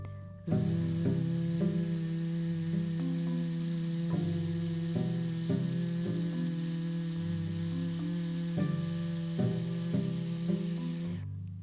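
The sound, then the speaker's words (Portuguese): After a breath in, a voice holds a long, steady buzzing Z sound for about eleven seconds, a voiced hum at a constant pitch mixed with a bright hiss, with no other talking. “inspirou, o som do Z.”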